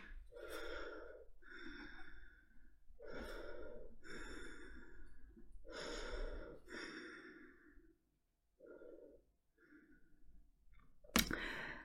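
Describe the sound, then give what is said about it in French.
A person imitates someone's heavy, forceful breathing through the nose, loud, in a steady rhythm of deep inhales and exhales. The breaths grow softer after a short pause and end with a sharp click. “Du mal à respirer, euh, je respire un peu comme un... Tu vois, c'est des grosses respirations par le nez.”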